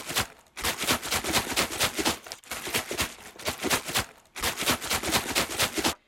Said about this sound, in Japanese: ペットボトルのシャカシャカ音ね